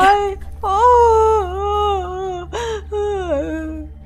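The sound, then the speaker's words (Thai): A voice acts out the story character Tik-Tok crying, tears streaming, as he lies in a field: long, wavering, high-pitched wails in three sobbing bursts, loud and clear over a steady low background hum. “แล้วติ๊กตอกก็ได้ร้องไห้น้ำตานั้นไหลพราก”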